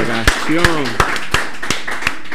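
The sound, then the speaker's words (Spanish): Applause from a small group in the room: sharp, fairly loud claps at a steady, even pace, about seven in quick succession, with voices and laughter carrying on beneath them. “Tenemos que despedir el episodio del día de hoy agradeciendo a todos ustedes un aplauso para todos, por favor.”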